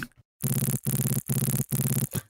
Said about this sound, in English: Now this is where it gets really smooth brain. um, down here is a vital patch. Let's listen to it.